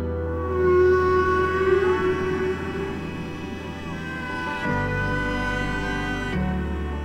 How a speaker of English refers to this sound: people describe some of the sounds of whales as song.